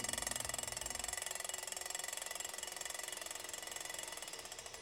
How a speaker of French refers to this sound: toujours du même côté de l'écran, et à l'autre bout de la pièce, on peut observer une seconde machine, faite d'un plateau de platine vinyle sur une caisse de résonance. Le son qu'elle produit est un doux claquement métallique.